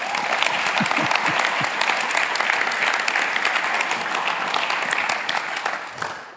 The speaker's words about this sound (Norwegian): Jeg syns vi skal gi ham en varm applaus først.